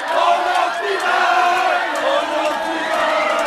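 A large crowd of French football supporters roars and cheers continuously at the final whistle of France's match against Morocco, a dense wall of shouting voices with rising whoops, loud and sustained throughout with no pause.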